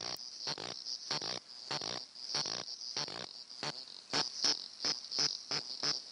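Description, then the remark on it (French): Cicadas of new genera and species call in the Kenyan steppe in a steady series of raspy, pulsing bursts, each a rough croak-like buzz resembling frogs, repeating rhythmically and growing slightly louder and more evenly spaced toward the end. “voir, mais que c'était des cigales qui étaient de genre et d'espèces nouvelles.”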